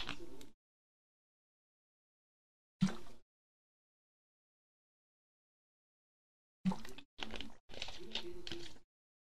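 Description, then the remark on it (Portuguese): Quiet mouth sounds of someone drinking their water: two isolated sips, a pause, then a quick run of swallows and gulps with nobody talking. “Vou tomar um gole da minha água, tá?”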